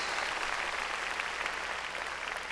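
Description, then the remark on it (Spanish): A church audience claps loudly and steadily for the Lord, many hands blending into a dense, continuous wash of applause that holds at an even level throughout, with no voices standing out. “Ah, qué lindo, démosle palmas fuertes al Señor.”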